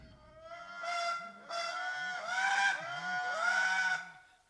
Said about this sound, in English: Well, these are the amazing sounds, clarinet like toots of the Indri, the last of the great lemurs. This is a big treetop lemur with no tail. Lemurs are, of course, living in the forests of Madagascar, limited to Madagascar.